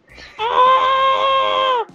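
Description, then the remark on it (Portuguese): A man shouts a vocal jingle for the program Grito da Liberdade: a single loud, sustained shout of about one and a half seconds, held on a steady pitch, with no other talk. “Cara, é uma vinheta humana.”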